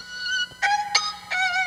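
dogs whimpering

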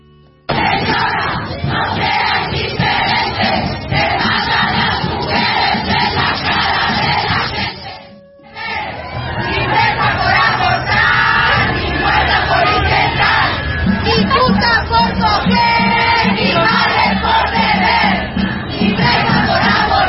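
protest march crowd chanting

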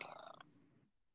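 domestic cat purring

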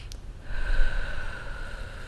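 deep breathing

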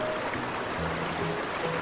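flowing river water

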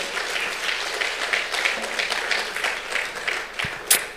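audience applause

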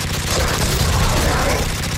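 gunshot fired

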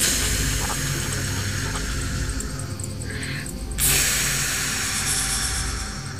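snake hissing sound effect

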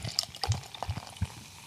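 beer being poured

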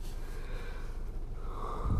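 yawn

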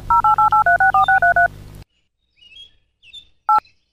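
phone keypad dialing tones

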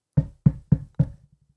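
knocking on a door

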